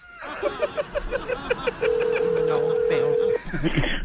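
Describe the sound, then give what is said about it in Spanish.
About ten quick, evenly spaced telephone dialing beeps as a DJ places a prank phone call, then a single long, steady ringing tone over faint background chatter, before a voice comes on the line at the end. “Ok, márcale, por favor, escuchen la, la broma que hizo el DJ.”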